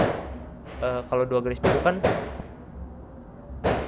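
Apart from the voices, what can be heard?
firecrackers going off outside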